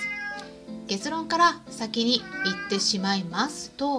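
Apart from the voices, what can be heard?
cat meowing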